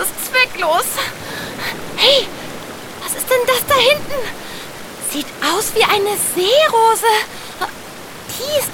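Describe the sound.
Steady rushing of flowing river water fills the background, constant, while short voice sounds and chirpy, gliding tones repeatedly rise above it.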